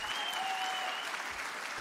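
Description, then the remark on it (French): A very long, sustained round of applause from a crowd after a magistrate of the Supreme Court of the Netherlands announced, on 20 December 2019, the final confirmation of a ruling ordering the state to cut its greenhouse gas emissions; dense steady clapping fills the whole stretch without pause, with a faint high tone running through it. “Il y a des applaudissements qui sont historiques et cette très longue salve en fait partie.”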